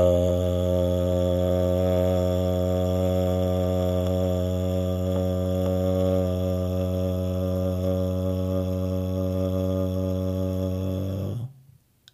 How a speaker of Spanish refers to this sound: Ahora vas a empezar a ayudarte y vas a emitir este sonido, el sonido de la letra A. Ah.